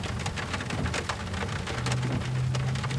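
Steady light drizzle patters onto the water of a lake, a dense hiss of countless small drops with occasional brighter splashes, continuous, with a faint low hum underneath and no voices.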